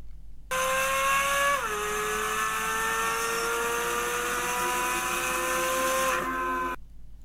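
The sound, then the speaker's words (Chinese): A new 5.5-litre naturally aspirated flat-plane crankshaft sports car engine screams at high revs with a loud, buzzy, harmonic wail, dipping in pitch early, then holding a steady high tone for about six seconds before cutting off. No one speaks. “你就会听它它引擎的声浪，我在这里给大家小小的播放一下这辆车的呃发动机的声音是什么样啊？”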